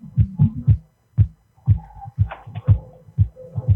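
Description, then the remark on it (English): A simple homemade music beat, just made and being recorded, plays softly from a phone speaker: steady low thumping kicks in a looping rhythm with faint melodic tones layered on top, and no one talking. “Well then, I maybe put your phone closer or something because this is just sound like a little.”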